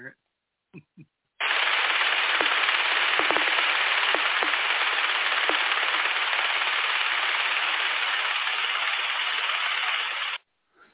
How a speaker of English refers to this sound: What I hear is okay. the background uh, sounds like a machine gun, and then I hear yep. the the uh, the pings or the the, mm-hmm. the kind of Congo drum thingy.